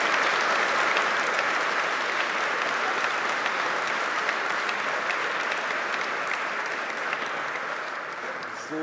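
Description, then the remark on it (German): Steady, dense applause from an audience at a ceremony honouring school graduates for their top Abitur grades, many hands clapping at once in a continuous wash that holds at an even loudness for the full length before easing slightly at the end. “Applaus”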